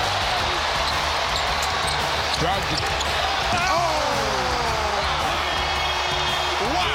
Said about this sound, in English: To get 2 of his 41, Jaylen Brown threw down an electric one handed slam. Take a listen.